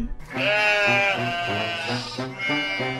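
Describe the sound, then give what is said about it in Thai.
A young lamb named Huey, the eldest brother, bleats in a grassy field in a long, wavering, nasal cry that sustains for nearly the whole moment, fairly loud, with a slight tremble to the voice and no talking. “แกะน้อยกำลังเล็มหญ้าอยู่ในทุ่งฮิวอี้พี่ชายคนโตก็ได้เริ่มร้องขึ้น”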